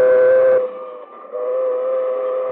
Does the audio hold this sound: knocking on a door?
no